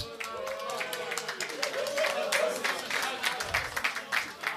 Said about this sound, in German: Einmal Applaus für den Fotografen!